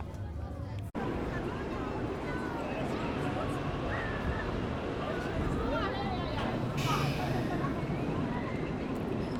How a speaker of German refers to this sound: Was Sie hier hören, ist die wilde Maus aus dem Hause Mack. Name weiß ich nicht. Weißt du's? Äh, Ghost Chasers. Sehr richtig, danke.